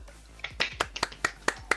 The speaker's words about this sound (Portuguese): Uma salva de palmas.